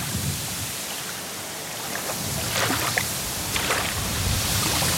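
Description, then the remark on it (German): Steady water sounds with soft splashes and lapping, the water moving by itself without anyone stirring it, a broad hiss of moving water with a few brighter splashy bursts, continuing without any voices. “Ja, das Wasser. Von alleine diesmal.”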